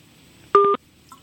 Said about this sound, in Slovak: tak toto vyzerá, keď po hodine skončí telefón.